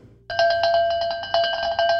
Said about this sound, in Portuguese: E também tinha os badalos, né? enfim, aqueles badalos do, do, do, do que os caboclos de, lança, de lanças levam na sua fantasia. É tipo o badalo de boi.